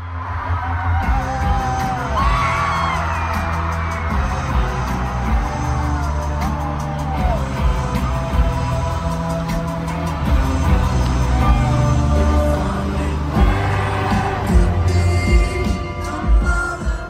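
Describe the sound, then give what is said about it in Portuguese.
A loud concert crowd of Mexican fans at the Palacio de los Deportes in Mexico City cheers and whoops steadily during a two-hour show, with rising shouts, yells and scattered whistles layered over a dense roar that swells in waves throughout. “E assim foi duas horas de show que os mexicanos parecem ter curtido.”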